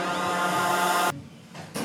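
A loud, drawn-out coffee slurp from a pop song, noisy and gurgling with a faintly piggish, snorting edge. It breaks off abruptly, leaving a brief quieter gap, then a second slurp starts right at the end.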